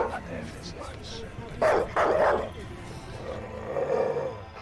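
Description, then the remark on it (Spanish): A dog barks aggressively, with a few loud, harsh barks in quick succession, then a lower, drawn-out growling sound near the end, all over a noisy background. “El perro seguía gruñendo y ladraba muy agresivo.”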